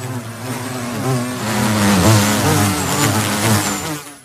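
A bee buzzes steadily for a few seconds, its droning hum wavering slightly in pitch and loudness, with no voices present.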